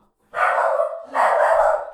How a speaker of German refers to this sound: Genau, jetzt klopft es an der Tür, der Hund dreht durch und ich bin alleine.